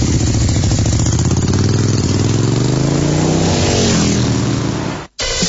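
A motorcycle engine rumbles loudly, its pitch climbing as it revs partway through, then the sound cuts off abruptly just before the end. No voices.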